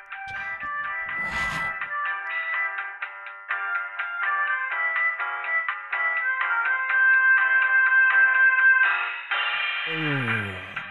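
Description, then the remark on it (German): A short, bright electronic jingle with quick plucked synth notes in a bouncy rhythm, ending in a rising swoosh and a descending sweep. No one talks over it. “der sich jetzt hier irgendwie schauen muss, dass er sich irgendeinen Jingle aus dem Arsch zieht, der jetzt hier mal kurz einläuft, bevor, mm.”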